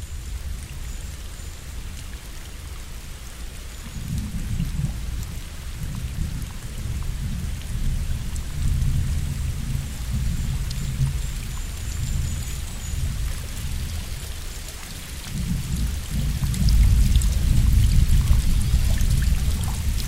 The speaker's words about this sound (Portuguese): uma chuva daquelas que, para usar as palavras do poeta Fernando Pessoa, mas parece um sussurrar